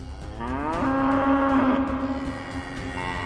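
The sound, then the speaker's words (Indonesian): A fire-breathing bull lets out one long, deep bellow that rises and then holds steady for over a second before trailing off, loud and clear with no talking. “Ketika api dari sang banteng berhenti keluar dari mulutnya, ternyata Jason berdiri diam tanpa terlihat terbakar sedikit pun.”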